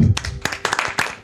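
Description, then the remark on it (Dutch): A brief burst of applause for a singer after a song: a handful of sharp, irregular hand claps over about a second, fairly loud, with a low murmur at the very start. “Applaus voor”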